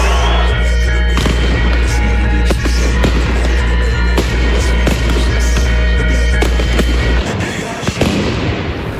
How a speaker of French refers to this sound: Vous voyez, hein, les projectiles volent. Là, en fait, ce qui est en train de se passer, vous voyez un pétard vient d'être lancé par un manifestant.